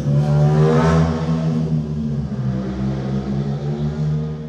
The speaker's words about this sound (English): Every, like, you know, I would come on here and I would see uh, motorcycles passing.